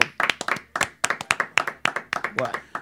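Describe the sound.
Steady, fast hand clapping, about fifteen sharp claps in under three seconds, moderately loud, with some voice sounds mixed in underneath.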